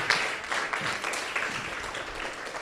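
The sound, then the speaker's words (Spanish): An audience claps together as an offering of applause to the Lord, a dense, steady wash that holds at an even, moderate level throughout, with no voices rising above it. “de una ofrenda de palmas al Señor.”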